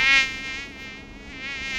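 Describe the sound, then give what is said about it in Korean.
A high, thin mosquito whine inside a car being driven on the road hums steadily for a couple of seconds, wavering slightly in pitch and loudness, with no voices present. “모기? 뭐야? 얘네가 언제 들어온 거야?”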